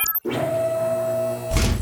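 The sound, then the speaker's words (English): A steady mechanical whirring hum as motorized truck doors slide open runs for about a second before ending in a loud, broad clunk as they finish. No one speaks. “Now, open the doors, please.”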